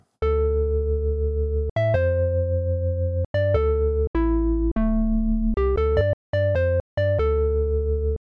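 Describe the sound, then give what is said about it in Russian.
A Roland Jupiter-8 synthesizer playing its Bell Organ preset: a short melody played alone, long sustained organ-like notes with bright chiming attacks, then a quicker run of short notes, loud. “Например, вот есть такой пресет, который называется Bell Organ.”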